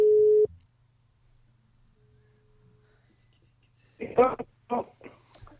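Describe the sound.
A loud, steady telephone ringing tone of an outgoing call to Geir Børresen sounds briefly at the start, followed by a much fainter repeat of the tone, and then a voice begins speaking.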